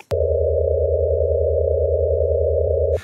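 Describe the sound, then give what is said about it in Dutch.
Vibrations of a star, which vibrates like a gong, converted into sound for a citizen-science project in Leuven: a steady, electronic-sounding drone of sustained tones, a low buzzing hum beneath a clear mid-pitched tone, holding evenly for about three seconds, with no voices. “En die vragen mensen om te luisteren naar het geluid van trillende sterren.”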